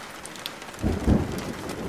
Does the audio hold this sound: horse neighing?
no